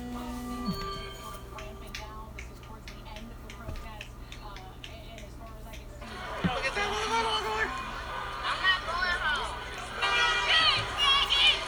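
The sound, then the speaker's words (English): A crowd of angry protesters in Detroit heading back to a police line, shouting; at first a low hum with scattered clicks, then swelling after a few seconds into a dense, loud wash of overlapping raised voices. “They're coming back. Oh my. And, and you hear them, they mad.”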